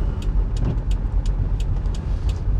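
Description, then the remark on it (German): A bus engine drones steadily as the bus tries to drive uphill ahead of the recorder, a deep continuous rumble, with scattered faint hissing clicks over the top and no voices. “Es versucht einer vor mir hochzufahren mit einem Bus.”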